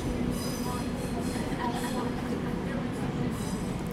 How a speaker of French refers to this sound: Ah, le bruit d'un train.